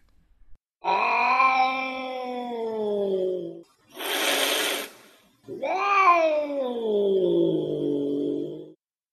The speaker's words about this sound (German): Beispiel 3. Die aggressive oder gestresste Katze hört sich gegebenenfalls wie an?